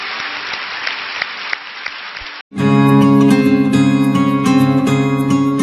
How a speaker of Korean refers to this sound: 우리 좋으신 하나님께 영광의 박수 올려드리겠습니다. 할렐루야.